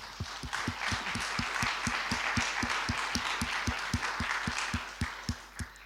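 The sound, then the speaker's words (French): An audience applauds steadily just before a film screening is launched, a dense wash of many hands clapping together, with a few sharper, regular claps standing out in a fairly even rhythm throughout. “Ah, on applaudit.”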